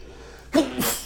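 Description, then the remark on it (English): A single sharp sneeze bursts out of near silence, a quick intake followed by a loud, breathy explosive release that trails off into a brief hiss. “Bless you.”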